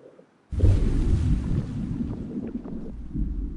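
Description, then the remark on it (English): After a brief hush, a deep roar bursts in abruptly and rumbles on loudly. The sound is pitched down two octaves with much of the high frequencies removed, and looped to create the feeling of being inside a submarine. A hissing, splash-like wash of water from an overhead microphone is layered over the low rumble. “And then they added a little bit of the splash from the overhead microphone.”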